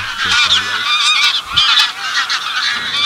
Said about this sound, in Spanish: el trompeteo tan norteño ¿no? de las grullas, el graznido de los.